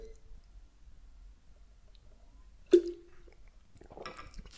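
Someone takes a sip of coffee: a near-silent pause, one sharp clink of a mug, then soft wet slurping and swallowing noises toward the end, with no talking.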